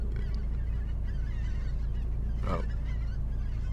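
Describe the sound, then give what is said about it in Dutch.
Geese honk over a steady low outdoor rumble, with faint scattered calls early on and one louder honk toward the end. Nobody speaks. “ondertussen hoor je ze roepen.”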